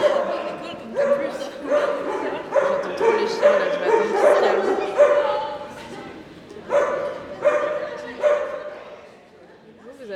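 A dog barks over and over in quick bursts, fairly loud, with a couple of brief pauses before the barking resumes and then trails off near the end.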